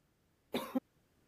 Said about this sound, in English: You good? coughed out my back. Okay. That's normal.